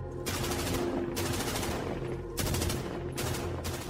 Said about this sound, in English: And then, bang, all of a sudden, all this shooting started.